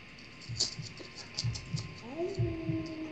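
A heartbeat sound effect thumps in steady lub-dub pairs, about three beats, low and muffled over a constant electrical hum, with a brief rising tone near the end.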